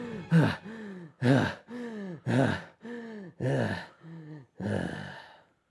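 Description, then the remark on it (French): A voice imitates breathless panting: around seven short, voiced, breathy gasps in a steady rhythm, loud, with no words spoken. “Elle est comme genre essoufflée et genre.”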